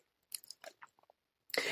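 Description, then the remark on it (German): Crunchy chewing of food comes in a series of short, irregular bites with brief pauses, then ends in a louder, sustained crunch. No one speaks. “Also die kann man essen.”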